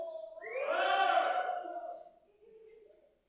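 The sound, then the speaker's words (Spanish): An audience, those who have passed 30 years of age, lets out a loud, sustained shout of joy that swells for about two seconds, then fades into a lower, scattered murmur of voices. “Den un fuerte grito de júbilo.”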